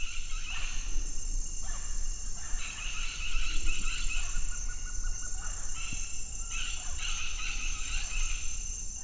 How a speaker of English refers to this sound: So, do we know what bird that was? Um, no, I, asked Danielle that, and, and she said no. It actually even she didn't know, um, but she, that's the point actually.